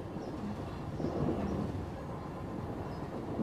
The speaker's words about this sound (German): Der Zug rattert weiter durch die Nacht.